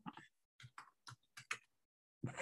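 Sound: typing on a keyboard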